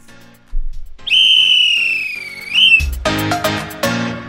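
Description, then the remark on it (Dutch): People whistle off-key: one long, loud note sags slightly in pitch, then breaks into a messier burst of overlapping, wavering whistles. “Daar fluiten we op.”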